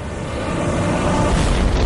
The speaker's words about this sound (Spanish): La materia se transfiere de una a otra hasta alcanzar un punto crítico. La estrella más pequeña estalla en una serie de enormes explosiones nucleares.